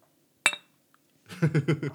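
beer bottles clinking

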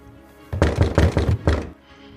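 knocking on a door

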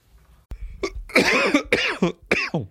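cough

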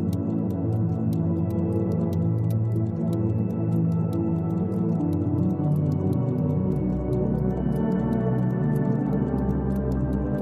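clocks ticking

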